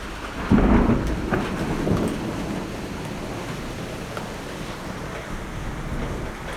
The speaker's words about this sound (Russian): Ну не, вроде не град. Ну, слышали? О, грозы. Очень люблю.